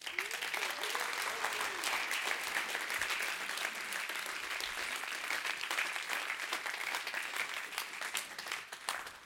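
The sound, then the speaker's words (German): Sustained audience applause for a father and son invited onto the stage, a dense, steady clatter of many hands clapping at even loudness, with a faint murmur of voices beneath. “Und geben wir ihnen zwei doch einen riesen Applaus.”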